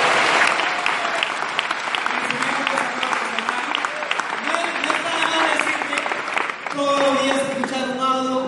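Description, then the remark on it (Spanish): A crowd claps steadily and loudly for several seconds, a dense wash of many hands with some cheering voices mixed in, continuing without a break to the end. “Date un aplauso si vas a ser para”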